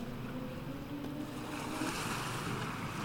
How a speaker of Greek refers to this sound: Και καθώς βρίσκομαι σε αυτό τον τόπο, σε αυτό το σημείο, χαλαρώνω όλο και περισσότερο, κοιτάζοντας τη θάλασσα, τον ορίζοντα, τα μικρά κύματα.